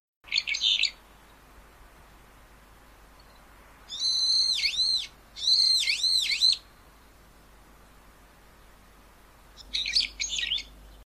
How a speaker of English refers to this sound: It has a loud song and call that many people dislike. I'll let you decide if you're not already familiar with it. I kind of like it, to be honest. This is what a brown eared bulbul sounds like.